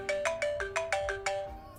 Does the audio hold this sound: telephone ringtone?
yes